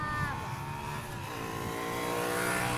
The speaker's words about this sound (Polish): E, tu skuterek jakiś.